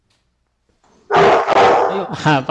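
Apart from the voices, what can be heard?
dog barking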